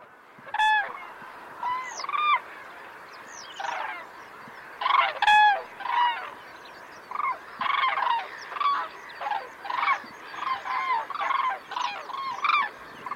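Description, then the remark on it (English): Common cranes calling repeatedly, loud trumpeting and bugling notes from several birds overlapping in an irregular chorus, with no speech. “And we finished up with a recording of the common crane there.”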